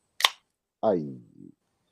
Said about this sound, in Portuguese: Este é o barulho de uma lata de energético sendo aberta às 7h27 da sexta-feira 13.